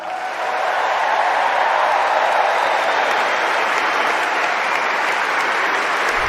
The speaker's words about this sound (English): I think it's just going to be two minutes of clapping. We'll listen to a little bit of it.